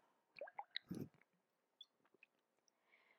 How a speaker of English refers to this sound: I'm going to take a drink of water.